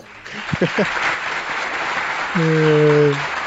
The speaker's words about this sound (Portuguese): Aí não, depois dessa merece um aplauso.